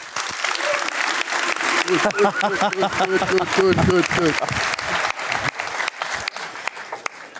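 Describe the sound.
An audience claps steadily for several seconds, a dense crackle of many hands, while a voice speaks over the applause partway through before the clapping continues on its own.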